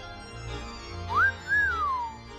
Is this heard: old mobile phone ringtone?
no